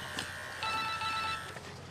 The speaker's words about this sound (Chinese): 来电话啊、接个电话，对不起啊。